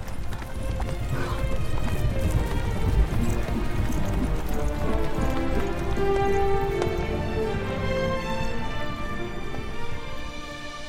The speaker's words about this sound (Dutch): En Lodewijk die daar net nog van ambitie door zijn paard zakte, geeft datzelfde paard nu de sporen en vlucht als een angstige haas.